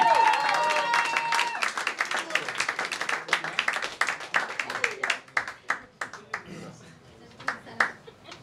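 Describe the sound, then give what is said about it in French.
An audience applauds all the performers, dense and loud at first with a few high whoops and voices mixed in, then thinning out into scattered, sharper individual claps as it fades. “On applaudit tout le monde, on donne de l'énergie.”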